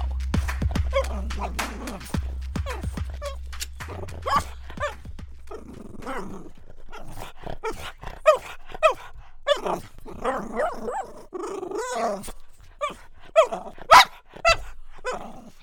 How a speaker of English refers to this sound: That was our very special guest for today. That was Izzy the dog.